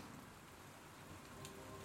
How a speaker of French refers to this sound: Quelques gouttes de pluie recommencent à tomber et dessinent des points épars sur le trottoir.